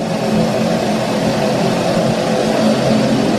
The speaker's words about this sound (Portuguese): é o som do asfalto, né? É o som da, daquilo que muita gente queria aqui em Santana do Livramento e que nas últimas duas eleições era ponto é, prioritário, né? Eleito, né? Pelas pessoas como prioridade, né?